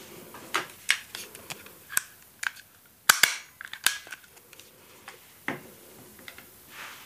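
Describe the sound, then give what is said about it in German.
A stapler clacks repeatedly at an irregular pace, each press a sharp, snappy click, with a louder double crunch midway and quieter taps trailing off. “Ah, ein Tacker. Nee, ja, tatsächlich.”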